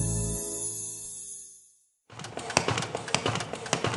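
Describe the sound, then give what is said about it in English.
After a sustained tone fades to a brief silence, Hope for the Heart's paper folding machine starts up. Its dense, rapid mechanical clatter ticks and rattles in an irregular rhythm as it folds hundreds of short biblical resources to send to prisoners around the country. No voices are present. “That's our folding machine preparing hundreds of our short biblical resources to send to prisoners around the country.”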